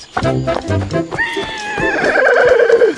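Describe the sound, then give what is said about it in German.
A horse neighs loudly, a long quavering whinny that starts with a few sharp snorting bursts and then wavers downward for about two seconds. “Das Pferd.”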